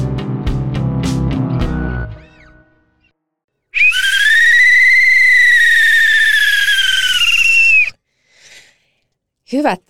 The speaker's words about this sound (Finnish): Tämä oli e, tällainen erotuomarin pilli, joka, joka halusi e, imitoida tällaista juhla, juhlapilliä.